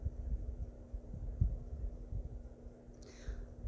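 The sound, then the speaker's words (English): Whale song: a deep, throbbing underwater rumble with a steady low hum, and a single faint, high call that sweeps downward near the end. No one speaks. “The whale song that you hear is much like the music that the water on Mintaka made.”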